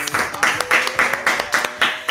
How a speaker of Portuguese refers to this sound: Palmas!